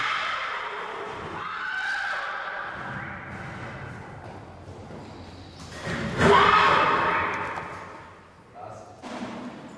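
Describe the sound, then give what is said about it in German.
A horse neighs and whinnies loudly, with snorting and a few thuds mixed in, while other sounds of movement fill the background, at a horse insemination station in Schweiganger, Germany, where a stallion sniffs a Haflinger mare. “Trotzdem beruhigt Maike das Pferd, während der Hengst erst einmal eine ordentliche Nase voll Stutenduft nimmt.”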